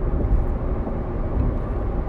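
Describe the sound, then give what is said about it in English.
Steady, muffled rumble of traffic as heard from inside a car, a continuous low drone of road and engine noise with no voices. “I am sitting in traffic when I do make these uh, episodes.”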